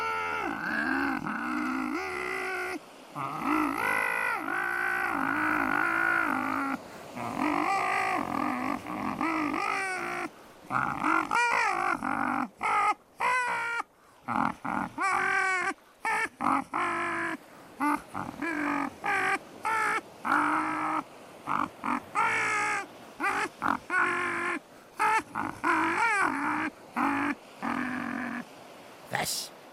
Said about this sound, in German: mit dem Vogel stimmt was nicht. Hast du ihm das beigebracht? Oh, da wird man ja gleich müde, wenn man dem Papagei zuhört. Ah, ich hätte ja alle eigentlich erwartet, dass der jetzt ein Seemannslied singt oder sowas.